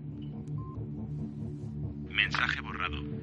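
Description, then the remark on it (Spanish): A single short electronic beep as a telephone keypad button is pressed in a voicemail message menu, set against a steady low mains hum, followed by a burst of louder, brighter noise near the end. “Para borrarlo, pulse 2. Pulsa una tecla.”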